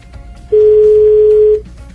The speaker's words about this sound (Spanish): No, Cristian le está timbrando el teléfono, Eduardo.